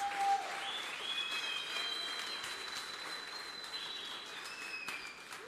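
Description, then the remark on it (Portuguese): A crowd applauds God steadily for several seconds, a dense wash of clapping with high, thin whistles riding over it. No one speaks. “Aplaude esse Deus.”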